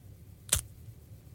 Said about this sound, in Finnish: Kyllä, se oli kun banaani aukaistaan.